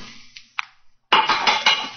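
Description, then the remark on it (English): A revolver strikes a stone bridge parapet: two sharp metallic clinks, a brief pause, then a longer, loud, rough clattering scrape with several uneven knocks. No one speaks. “the revolver flashed back out of your hand, struck the parapet of the bridge, and then the weight of the stone flipped it over into the water.”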